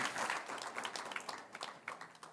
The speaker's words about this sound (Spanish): Vamos a dar un aplauso al Señor y ponernos de pie en esta noche.